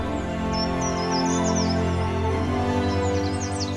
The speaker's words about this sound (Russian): Птицы закричали, а и Патрик заметил убийц